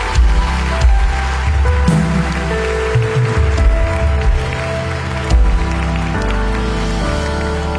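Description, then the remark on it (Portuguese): A church audience applauds for Jesus steadily for several seconds, a dense, continuous wash of many hands clapping over sustained instrumental chords and a low bass, with no speech. “Se for para Jesus, você pode aplaudir mais forte.”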